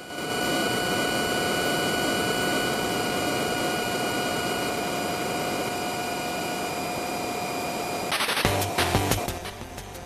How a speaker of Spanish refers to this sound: Nosotros estamos pilotando un F-16, un F-15 y este es un F-16, el que está sonando en este momento, cargándole el combustible a nuestra aeronave. Ahora se va, ¿no? Ahora se va. Escuchen.